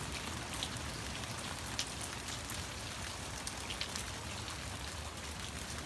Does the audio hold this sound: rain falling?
yes